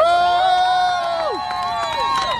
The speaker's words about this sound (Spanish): ¡Que viva el sexto día del paro nacional! aplauso para todos y todas.